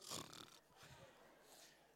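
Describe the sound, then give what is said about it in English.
A person imitates snoring to pretend to be asleep at about two in the morning: a short, rough snorting inhale, followed by a softer, drawn-out breathy exhale. “And I act as if I'm snoring.”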